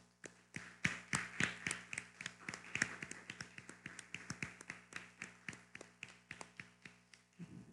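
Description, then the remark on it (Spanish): Steady, fairly quick clapping, sounding like just one or a few people applauding, with distinct sharp claps for several seconds over a faint low hum, given as applause for all the nations. Nobody speaks. “¿Por qué no damos un fuerte aplauso a todas las naciones?”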